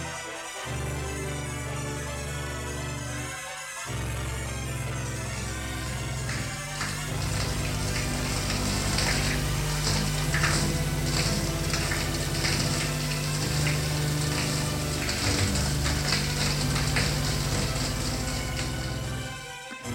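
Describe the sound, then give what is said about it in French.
A shower runs steadily in a bathroom as a woman showers, a dense hiss of spraying water with a low pipe hum underneath, growing fuller and splashier after a few seconds and continuing without pause. “Elle se lève, va dans la salle de bain prendre sa douche,”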